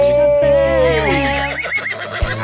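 horse neighing

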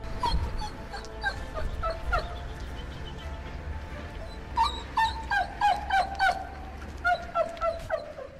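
dog barking and whimpering

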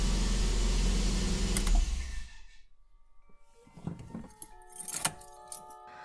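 keys jangling

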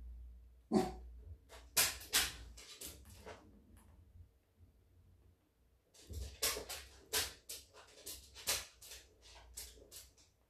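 dog barking excitedly

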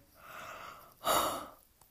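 yawn

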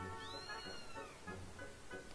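cat meowing

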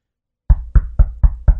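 knocking on a door

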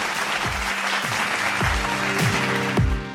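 applause

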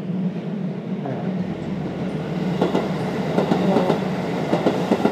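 train passing by

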